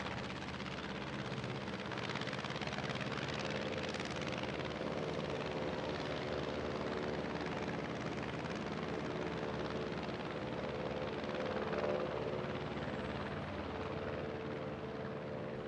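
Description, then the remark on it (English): An aircraft on a McLean flyby during a mountain rescue drones overhead with a steady, throbbing engine roar that holds at an even loudness for the whole stretch, thick and continuous, with no voices. “Another McLean flyby confirmed that the boys had survived the night intact”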